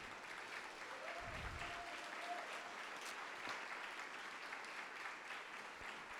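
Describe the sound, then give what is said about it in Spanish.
An audience at a church sermon applauds steadily for the glory of God, a dense, even wash of clapping hands that holds at a consistent level throughout, with a brief low thump early on and no one speaking over it. “Dale un aplauso fuerte de gloria.”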